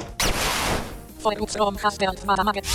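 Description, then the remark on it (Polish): A sharp, bright video-game sound effect marking a super-effective hit in a battle, a crunchy, sweeping burst lasting under a second, then a man starts talking right after it fades. “jest dźwięk taki specjalny, to jest właśnie dźwięk super efektywności.”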